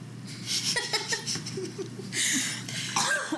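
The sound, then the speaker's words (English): A small, dainty cough that seems to cover a burp, surrounded by bursts of laughter and giggling, with a brief breathy noise near the middle. “trying to hide her burp with a dainty little cough.”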